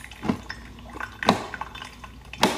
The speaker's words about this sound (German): ist übrigens erst jetzt aufgefallen, wie seltsam ihre Kaffeemaschine klingt.